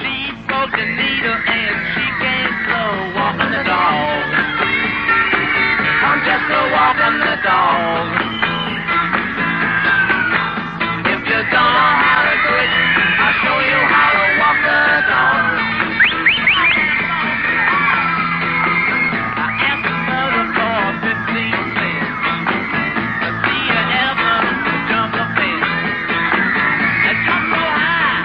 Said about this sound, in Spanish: también en 1964 y también con este mismo sonido sucio y horroroso tan propio de la época, acompañado por supuesto de los gritos de, de los fans, porque esto es de una actuación en directo